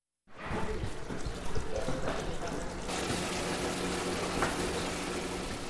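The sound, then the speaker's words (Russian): Warm water pours steadily into a small foot bath at a market, where medicinal herbs are added, a continuous splashing fill that stays fairly loud, with a faint low hum underneath. “теплую воду в небольшой ванне добавляют разные лекарственные травы, в том числе достаточно экзотические, такие как кора филодендрона, корень дудника, полынь, герчевник и хаутуния сердцевидная.”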